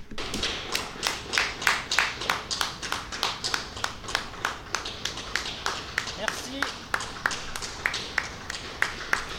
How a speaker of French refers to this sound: oh ça applaudit dehors Attends, excuse-moi.